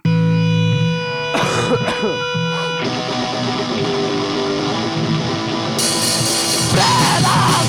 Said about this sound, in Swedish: Vi kör rå, skitig och ösig punk på svenska.